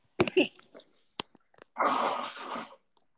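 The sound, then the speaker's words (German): Someone blows their nose: a few short sniffs and clicks, then one long, loud, rough blast of air through the nose lasting about a second. No one speaks. “ja, falls ich Nase putze, es tut mir leid.”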